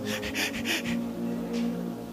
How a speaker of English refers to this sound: see how you are breathing.